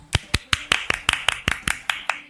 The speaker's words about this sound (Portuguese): Ai, gente, é, olha, meu, sério, vamos bater umas palmas, umas palmas.